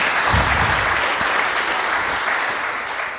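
An audience claps steadily, a dense, even wash of many hands that holds at a fairly loud level throughout and thins slightly toward the end.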